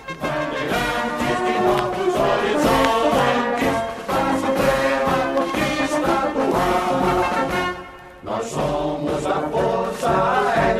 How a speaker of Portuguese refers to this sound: ouvindo Bandeirantes do Ar, música de …, com a banda da base aérea do Galeão e Coro. Vamos ouvir um pouco mais.